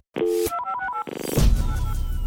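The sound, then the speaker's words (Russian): A phone call to a mother being placed: a quick run of electronic keypad dialing tones, then a connecting tone that gives way to noisy line static, all fairly loud with no talking. “Можно мы позвоним моей маме, и я спрошу, что это была за женщина?”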